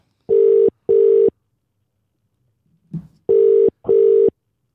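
Outgoing phone call ringing on the line: two double-beep ring tones separated by a short pause with a faint click, heard clearly and alone with no voices.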